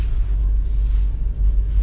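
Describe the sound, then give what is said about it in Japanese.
A steady, heavy low-end rumble fills the space, the continuous droning hum of a car's interior while driving, with a faint hiss of road and wind noise above it and no voices. “車に乗ってるわけですけども”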